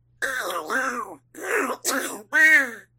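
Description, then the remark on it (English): A voice does a Donald Duck impression in four or five raspy, squawking bursts of garbled, nasal vocalizing, fairly loud, separated by short pauses. “is a reference to our segment on Sounds by Light called Wish Us Duck, where we do a Donald Duck impression.”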